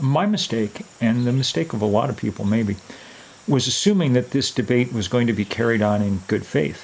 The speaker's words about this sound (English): and it's kind of a log cabin style thing. Um, and so you can hear the crickets in the background um, on the recording because we were on the porch.